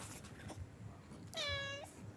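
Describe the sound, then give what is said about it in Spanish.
A single clear meow from a playful, restless cat, a drawn-out tonal cry lasting about half a second, against faint low background noise and no talking. “¿qué le pasa a este gato?”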